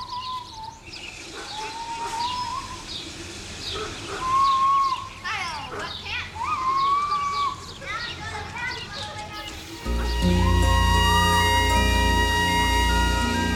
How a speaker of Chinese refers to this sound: 在里边听到了很多生活中的声响。从小鸟、小狗到小孩子，还有汽车路过的声音和合成器的旋律交织在一起。